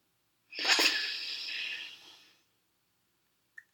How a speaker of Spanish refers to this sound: Ahora, en un sitio cómodo, nos sentamos y tomamos una respiración profunda.